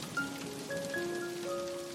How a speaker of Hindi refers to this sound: आधे रास्ते में ही झमाझम बारिश होने लगी